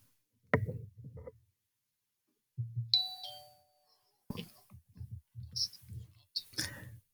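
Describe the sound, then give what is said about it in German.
A short shoutout jingle: a bright, ringing doorbell-like chime sounds midway, surrounded by quick, punchy vocal bursts and clicks, moderately loud. “Dazu brauche ich aber einen Jingle und den hörst du jetzt.”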